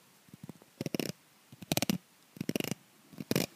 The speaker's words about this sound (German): Jetzt bin ich mal mit dem Fingernagel drüber gefahren. Über das eine, ja.